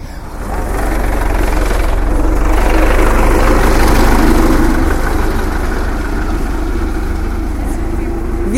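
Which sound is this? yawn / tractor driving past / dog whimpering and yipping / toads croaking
tractor driving past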